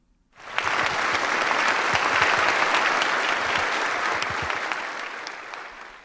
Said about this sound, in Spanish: Su discurso concluyó con una ovación bipartidista de todos los congresistas en pie.